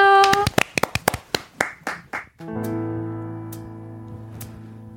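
An audience claps in a quick burst of sharp, crisp hand claps that quickly thin out and stop after about two seconds, as soft sustained music of a live song performance swells in and carries on.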